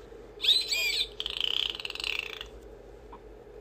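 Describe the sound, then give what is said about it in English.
A dolphin dives deep underwater and calls with high, warbling whistles followed by a rapid buzzing burst of clicks, clear, with no one talking over it. “Underwater, the dolphin dives deep. Dolphin.”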